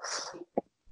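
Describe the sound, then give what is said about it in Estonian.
A single sneeze: a breathy, hissing intake builds for a moment, then a short, sharp burst, followed by quiet. No one speaks. “ja tervist, tervist.”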